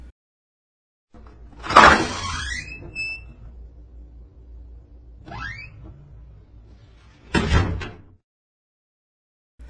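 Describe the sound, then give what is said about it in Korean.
A sharp metallic clunk as a lock drops to the ground, followed by drawn-out creaking sweeps as doors swing open by themselves, then another loud clatter near the end. The sounds are clear, with no talking. “오공이 문을 가리키는 대로 잠을 새는 덜커덕 땅에 떨어지고 문들은 삐걱삐걱 저절로 열렸습니다.”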